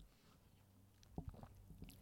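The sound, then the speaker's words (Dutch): Someone takes a quick sip of a drink: a brief wet slurp and a soft swallow, with faint mouth clicks in an otherwise quiet moment and no talking. “Ik, Doe eh, jij ook even, ik neem ehm, nog even een slokje.”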